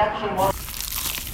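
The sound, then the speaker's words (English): A crisp crunch of someone biting into a cheesy, crunchy pizza slice, a dense crackling rasp lasting about a second, right after a brief tonal, voice-like sound. “Is that the sound of an ooey gooey, cheesy, crunchy slice of PIZZA?”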